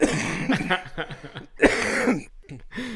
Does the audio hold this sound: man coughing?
yes